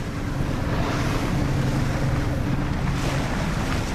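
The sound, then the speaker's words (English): Steady, loud rush of wind and water from a 20-foot research boat out on the open ocean off Maui during a Whale Trust study of humpback whale song, with a low engine-like rumble underneath and no voices. “It's twice the size of the 20 foot long research boat.”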